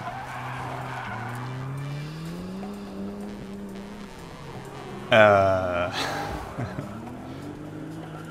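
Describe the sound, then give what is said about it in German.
A car engine revs and climbs in pitch as the driver floors the gas, then a loud, shrill tire squeal bursts in partway through before the motor roars on; a brief hesitant voice is heard near the start. “drückt aus Gas drückt auf die Hupe, brettert voll.”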